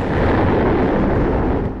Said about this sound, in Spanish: La explosión reduciría la ciudad a escombros y cenizas. Debido al impacto se formaría un cráter de 1,6 kilómetros de diámetro tan profundo que daría la vuelta a toda la red de metro colocándola al borde del cráter.